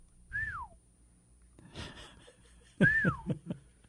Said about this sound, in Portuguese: E tal, quando eu dei os parei, parou de assoviar.